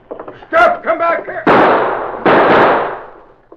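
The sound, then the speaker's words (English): A man's voice calls out briefly, then two loud gunshots ring out about a second apart, fired in thick fog at a man who dived into a river, each a sharp crack followed by a long, rumbling decay. “You think you winged him, Sarge?”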